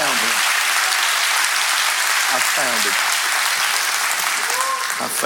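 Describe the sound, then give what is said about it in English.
A crowd at a sermon claps their hands steadily in a dense, continuous wash of applause, with a few brief voices rising faintly through the clapping. “Can somebody clap their hands and say, I have found him?”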